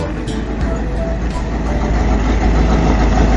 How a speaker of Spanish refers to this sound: Vamos a prender la camioneta primero. Este, yo me puse la campera, prendí la camioneta, la vamos a calentar porque está fresco.